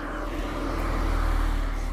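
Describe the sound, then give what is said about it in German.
A car engine rumbles low and steady, holding an even loudness for the whole moment, with no voices present. “Da kommt noch ein Auto.”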